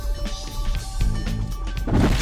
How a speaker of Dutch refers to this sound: Raf ramt met zijn auto een paaltje.